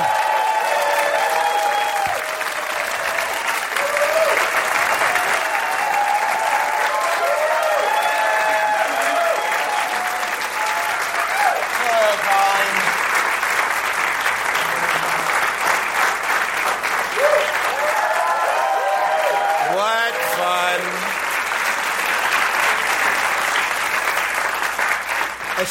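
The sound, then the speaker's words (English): A large audience claps steadily and loudly for nearly half a minute as a singer-songwriter guest is introduced, with scattered cheers and whoops rising above the dense, continuous applause. “Let's give it up for”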